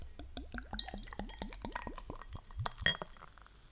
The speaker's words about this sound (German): wie perfekt das eingegossen ist. Ey, wenn, wenn man das jetzt sehen könnte, ne?